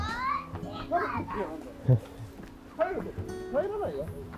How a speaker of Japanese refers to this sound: 子供がね、あーと、あっちに行きたい、こっちに行きたいって言ってますよ。多分この音は入ってるだろうな、絶対。僕の声より大きいですから、そっちを拾う、そっちは拾うはずなんで、絶対。